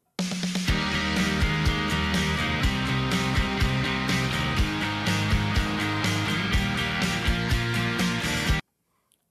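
A loud, dense rock band intro of a cover song, played from a video, with driving drums, full guitars and a steady beat for about eight seconds, then cuts off abruptly into silence.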